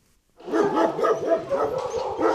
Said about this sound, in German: Wer im Tierheim in Oberursel in Richtung Zwinger läuft, wird lautstark begrüßt. Manche Hunde sitzen schweigend in ihrem Zwinger. Andere gehen wortwörtlich die Wände hoch. Wieder andere bewachen ihr Fleckchen.